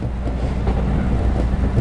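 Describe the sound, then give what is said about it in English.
A train rumbles steadily past through a station, a dense low roar with a hiss of rolling noise on top, holding an even, fairly loud level throughout with no voices. “That confounded train of mine is always on time.”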